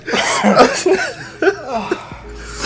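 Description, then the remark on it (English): A few rough coughs tangled with breathy chuckling, coming in short uneven bursts before trailing off into quieter throat sounds. “I think I just coughed it back I'm into my mouth”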